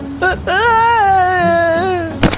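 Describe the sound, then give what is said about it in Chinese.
A man on his way to work, greeted by a brown bear on a stone-paved road, lets out a loud, frightened scream, one long sustained cry lasting over a second and a half with a slowly falling pitch, preceded by a short vocal yelp, then faints. “叔叔大叫着昏倒在路上。”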